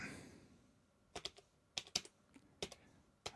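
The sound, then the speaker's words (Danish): Someone types on a computer keyboard, crisp key clicks landing in short irregular bursts of two or three strokes with brief pauses between, no voices present. “Øh, vi kan også prøve at skrive den døde genstand.”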